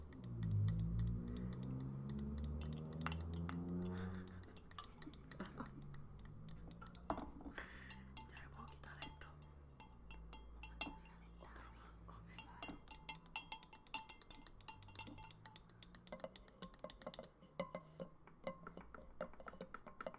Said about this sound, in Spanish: Anyways, vamos a empezar ahora por un nail tapping es con estas uñas de palito, de pinche.